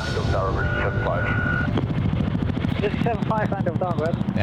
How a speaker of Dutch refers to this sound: En dan hoor je dus het geluid van de toren en hoor je de Chinook. En dan echt geluid. Nou, daar komt hij hoor.